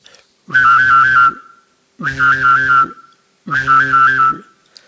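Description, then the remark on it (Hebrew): Three loud whistled bursts, each under a second long, imitate a vibrating cell phone as a whistling effect by a professional whistler, with a wavering, buzzy pitch and a low droning undertone. Short silences separate the bursts. “ואני יכול לעשות טלפון סלולרי רוטט.”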